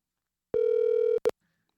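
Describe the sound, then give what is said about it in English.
A telephone ringing on the line during an outgoing call: one steady, buzzy mid-pitched tone lasting over half a second, then a brief cut-off second burst, with no voices. “Let's let's let's make that phone call, shall we?”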